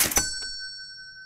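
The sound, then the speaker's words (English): A mechanical clunk and rattle set off a single bright bell ding, which keeps ringing clearly and fades slowly, like an old cash register bell sounding to mark a sale as its drawer opens. “These included a roll of paper tape to record sales, pop up numbers to indicate amounts of money, and a bell to provide the now familiar sound we associate with making a sale.”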